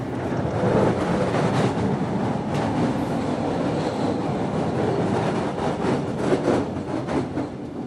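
A passenger train travelling to the seaside rumbles steadily along the rails, its loud, continuous roar broken by faint rhythmic clacks of the wheels, heard as if from on board.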